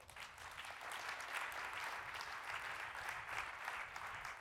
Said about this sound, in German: Applaus für die Techniker.